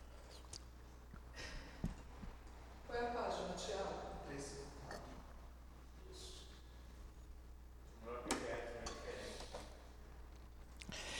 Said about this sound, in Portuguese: Vocês me permitem, permitam tomar um pouco de água.